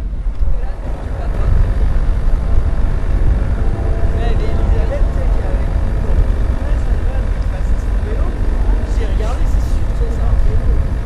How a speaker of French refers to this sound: on est dans la forêt, il y a un hélicoptère qui nous survole.